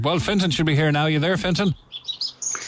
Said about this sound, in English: I'm still hearing the birds in the background, but that's fine.